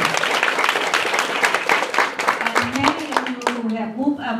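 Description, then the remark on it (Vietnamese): A crowd at a recognition event breaks into sustained applause congratulating members on new achievements of the past year, dense overlapping claps, with a voice beginning to speak over the clapping toward the end. “Xin chúc mừng tất cả các anh chị cho các trường thảo này lớn.”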